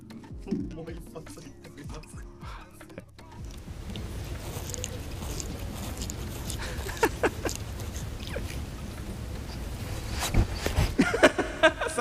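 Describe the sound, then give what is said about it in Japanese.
Rasping and wet licking as a pet cat grooms itself with its rough tongue, a steady run of scratchy strokes with soft snuffling nose breaths, growing a bit louder and busier toward the end. “こちら飼い猫の毛づくろいする音と鼻息だそうですなるほどねあー毛づくろいの音ねジャリンジャリンジャリンってやつね確かに猫の舌ってちょっと尖ってるんだよねだからちょっとザラザラした感じの音が面白い音だな”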